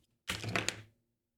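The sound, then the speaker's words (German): A pen tossed like a coin lands with a brief, bright clatter, a rattling scrape lasting under a second with one sharp click near its end, then silence. “Ich werfe trotzdem mal. Kopf ist, ich schneide es raus. Rücken ist, ich schneide es nicht raus.”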